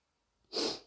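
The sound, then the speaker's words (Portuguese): A single sharp sneeze bursts out after a brief quiet moment, a loud, breathy explosion that trails off quickly. “Eu vou espirrar.”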